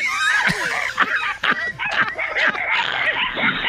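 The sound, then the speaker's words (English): A frantic chorus of several dogs barking and yelping over one another, loud, in a dense, continuous tangle with sharp, shrill cries breaking through. “Please come over here and get some of these damn dogs.”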